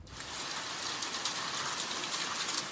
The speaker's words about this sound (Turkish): Turuncu kodlu uyarı sonrası Bursa'da da kuvvetli yağışlar başladı. Sağanak yağış bir süre sonra doluya döndü.